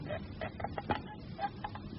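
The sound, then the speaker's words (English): The small wooden door of a little shrine on a table being opened, a quick run of quiet creaks and ratcheting clicks over a couple of seconds with no talking. “Please, now, will you open the door of the little shrine on the table?”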